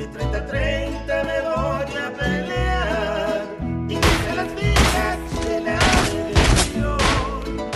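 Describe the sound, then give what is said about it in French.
Tense tonal music plays for a few seconds, then a run of loud, sharp gunshots cracks out irregularly, close and forceful, over the continuing music: a street battle during the Mexican Revolution, with bullets whistling very close by. “Je me rappelle avoir regardé une bataille dans les rues. Les balles sifflaient tout près.”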